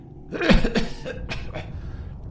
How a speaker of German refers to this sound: Ein wenig Blut, hustet der alte Magier hinaus.